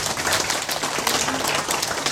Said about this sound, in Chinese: 所以我要借由大家的掌声来感谢以上我所要感谢的人。